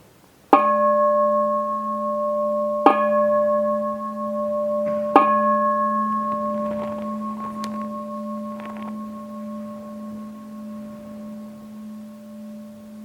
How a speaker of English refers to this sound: Or when you hear the bell, you immediately pop up. See if you can maintain the meditative attitude until the sound of the bell until there's no sound left to hear as you breathe in and as you breathe out.